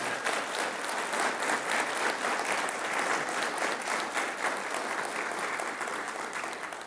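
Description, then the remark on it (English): A church audience claps steadily for several seconds to thank their pastor in the morning, a dense, even wash of applause that stays loud throughout with no voices standing out. “And uh, so, can you put your hands together and thank him this morning?”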